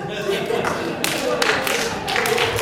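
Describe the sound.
A crowd claps together in a slow, steady rhythm, roughly one loud clap every half second, building over a background of murmuring voices.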